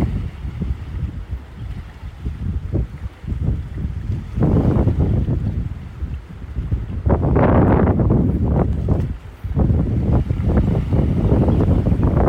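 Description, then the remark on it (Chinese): Sea waves wash onto a beach in a continuous low roar, swelling into louder, hissing surges toward the end, with gusts of wind buffeting the microphone and no voices. “光是听海浪的声音。”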